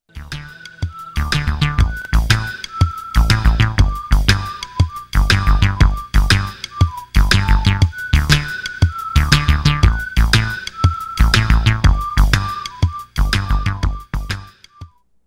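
A loud, busy music demo with a steady pulsing beat and a bright, whistle-like keyboard melody, played into a sequencer, sliding and repeating on top throughout; no voices are heard.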